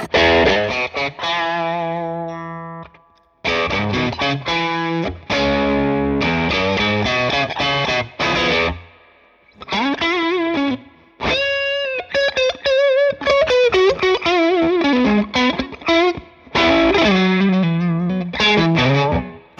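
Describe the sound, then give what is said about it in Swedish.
An electric guitar played through a low-gain overdrive pedal, with lightly crunchy chords and melodic runs in several phrases separated by brief pauses. The tone is fairly loud, with no voices. “Den här är också ganska lite, lite gain.”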